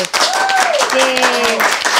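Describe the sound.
Steady, loud applause fills the whole two seconds, a dense crackle of many hands, with a few drawn-out voices cheering or calling over it.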